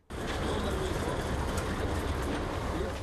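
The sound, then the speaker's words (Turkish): A crowded evacuation train in Ukraine rolls along the rails with a steady, loud rumble and rattle of carriages, a dense continuous roar that starts abruptly and holds without pause throughout. “Sığınaklar izdihamla binilen tahliye trenleriyle küçük dünyaları büyük bir kaosa dönüştü.”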